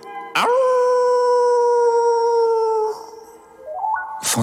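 A wolf howls loudly at night in a forest, holding one long steady note for a couple of seconds, then trails off before a second call rises upward in pitch.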